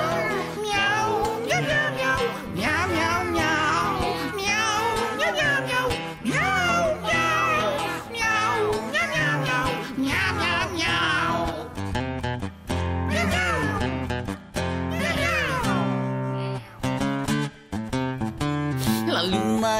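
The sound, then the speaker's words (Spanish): Over loud, busy band music, a voice repeatedly sings a string of cat meows, each mew short and rhythmic with the beat, imitating a cat rather than a real animal. “Miau, brr, miau, vamos muchachos, miau, miau, miau, miau, miau, miau.”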